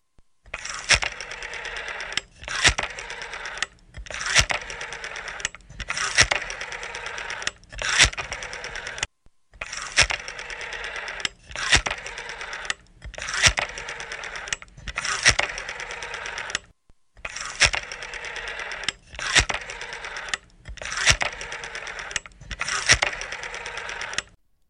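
An outgoing phone call to another member of a group ringing, with a buzzy tone repeating in steady bursts separated by short pauses, fairly loud and with no one speaking over it.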